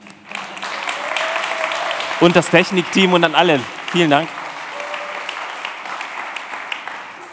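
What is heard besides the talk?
audience applause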